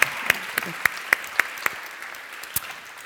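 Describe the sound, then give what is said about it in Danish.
A short burst of clapping: about seven sharp, evenly spaced claps in quick rhythm, then a brief pause and one or two more. Moderately loud, with no one speaking over it. “Vi skal lige klappe af en rent mere.”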